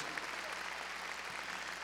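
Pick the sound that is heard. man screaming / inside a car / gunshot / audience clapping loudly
audience clapping loudly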